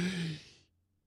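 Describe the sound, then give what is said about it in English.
A person draws in one sharp, breathy gasp, fairly loud, with a faint voiced edge, imitating a sudden desperate breath; it cuts off quickly, leaving near silence. “And I remember taking a, a breath, this like gasp of a breath. I went,”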